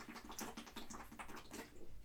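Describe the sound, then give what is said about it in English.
Someone gulps water noisily, a quick run of wet swallowing and slurping sounds repeating in a steady rhythm for a couple of seconds, with no talking. “I know it's like weak old water. No, but also, why do you drink it so loud, bro?”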